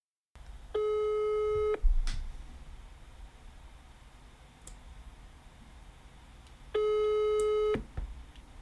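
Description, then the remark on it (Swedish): A telephone ringback tone of an outgoing phone call sounds twice, each steady buzzing beep lasting about a second with a long pause between, heard over faint line hiss and a few small clicks. No one speaks. “Så det här tror jag faktiskt att min pappa kan. Så jag ringer honom.”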